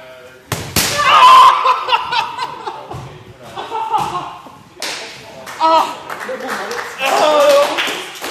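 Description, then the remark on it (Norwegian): Two or three sharp, loud hand slaps on a bare back land several seconds apart, each followed by gasps and stifled laughter from people. “Etter den andre fiken så kjenner jeg, til min relativt store overraskelse, at jeg begynner å like det.”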